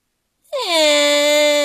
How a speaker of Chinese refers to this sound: 嗯，…妹妹被这声音吓哭了。